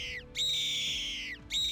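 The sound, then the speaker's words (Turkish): A bird of prey diving into a valley gives a shrill, piercing cry, loud, one long drawn-out scream sliding slightly downward, with another beginning right after a brief pause. “Yırtıcı bir kuş vadiye son pikesini yaptı.”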